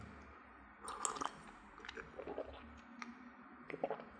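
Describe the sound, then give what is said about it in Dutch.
Quiet sips of tea: a few short, soft slurping mouth sounds in separate bursts, with brief swallows between and no talking. “Maar ik ga even van mijn thee drinken.”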